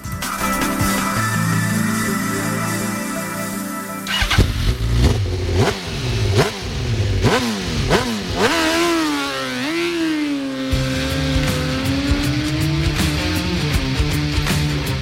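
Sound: motorcycle engines revving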